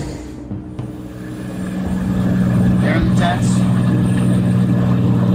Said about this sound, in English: We're going to fly this Cirrus right over the top of the detention center to get a better look.